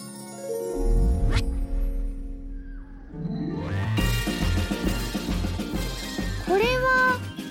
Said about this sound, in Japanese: 何の音かななんだか楽しそうな音が聞こえてきたねそうここはみんなが大好きな遊園地これは何の音かな